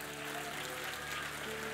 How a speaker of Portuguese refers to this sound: Quantos dão um aplauso ao Rei da Glória?